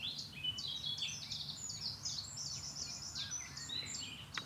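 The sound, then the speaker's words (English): Garden warblers and nightingales sing in a continuous, overlapping chorus of fast, bright warbling phrases, the garden warblers outsinging the nightingales, over a low rumbling background of traffic. “Well, the nightingales are being outsung by the garden warblers at the moment.”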